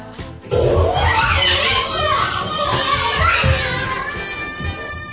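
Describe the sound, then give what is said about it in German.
A lively crowd of small children playing, high voices chattering, squealing and calling over one another in a steady, busy clamor with no pauses. “Da enterten Kinder, Kleinkinder, und eine Kindergartenfrau den Hümer Wohnwagen.”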